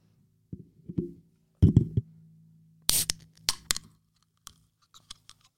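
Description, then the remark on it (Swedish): Handling clicks close to the microphone, then a drink can is cracked open with a sharp, loud hiss and a few crackling bursts, fading into faint scattered fizzing pops. “Men jag tänkte att den här gången ska jag försöka bjuda på den mest crispigaste crisp-öppningen någonsin.”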